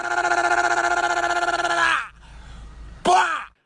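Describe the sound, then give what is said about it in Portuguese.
A car engine revs hard at high pitch for about two seconds with a strained, pulsing drone as the gear is stretched, drops to a low idle, then briefly roars up again before cutting off. “E não deixe o motor fazer aquele ruído mais forte, típico de quando a gente estica a marcha.”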